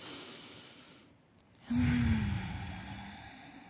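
A slow, deep breath drawn in with a soft airy rush, then released in a long, louder exhale with a low voiced hum, heard alone.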